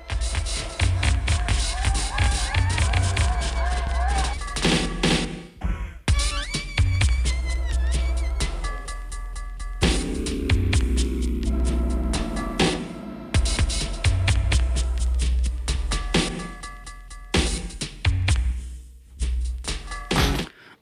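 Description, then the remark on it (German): Dense experimental electronic underground music played from magnetic tape, with throbbing low bass, buzzing textures and wavering synth tones, loud, broken by abrupt cuts and splices into new sections; no one speaks. “was ihr hier zum Anfang hört, kommt auch von Magnetband Experimentelle Elektronik Underground.”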